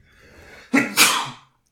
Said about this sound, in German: Gesundheit. Danke, Entschuldigung.